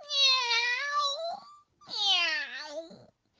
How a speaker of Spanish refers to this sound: De repente apareció el gato de la casa dando gabriolas en una pequeña horca, con unas muecas y unos maullidos espantosos.